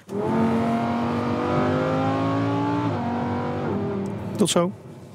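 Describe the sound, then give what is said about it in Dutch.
A loud, high-revving Lamborghini Huracan Performante engine, its pitch climbing steadily, then stepping down through two quick gear shifts before a sharp burst near the end. “En Wouter die rijdt met de Lamborghini Huracan Performante.”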